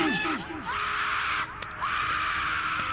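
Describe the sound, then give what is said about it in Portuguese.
A voice imitates panicked screaming: a few short, falling shrieks at first, then long, strained, breathy cries that carry on loudly to the end. “Você começa a ouvir os gritos das pessoas em volta de vocês.”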